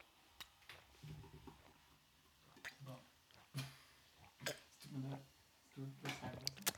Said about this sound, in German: Ich habe mir schön großes Glas Wasser reingekantet.